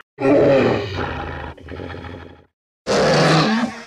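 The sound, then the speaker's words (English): A deep, gravelly movie-monster roar in three bursts: a long loud bellow, a softer growling continuation, then after a short silence a final harsh roar. No one speaks. “Apparently, uh, another fun fact the Rancor, like, growls uh, a little hot doggy dog, little dachshund, which I found hilarious.”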